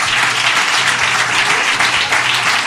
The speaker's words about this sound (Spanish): Oye, un aplauso. La primera la ha sacado muy bien.